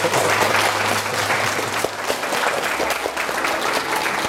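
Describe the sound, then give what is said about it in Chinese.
An audience at the Shanghai Tower breaks into steady, dense applause to welcome the tower's general manager, Gu Jianping: many hands clapping at once in a continuous crackling wash that holds at an even loudness for about four seconds, with no one speaking over it. “好，让我们不要吝惜自己的掌声啊，请出上海中心的总经理顾建平先生。”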